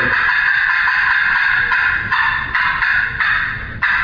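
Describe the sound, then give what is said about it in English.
A hen turkey fly-down cackle played on a game call, imitating a hen leaving the limb early in the morning: loud, raspy notes in a rapid, uneven run lasting several seconds, with no voices. “Maybe early in the morning you want to sound like that hen turkey flying down.”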